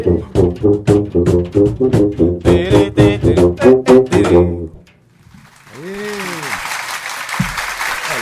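A canned crowd applause effect bursts in as a steady wash of clapping after rhythmic singing stops, with a brief rising-and-falling whoop over it, lasting about three seconds.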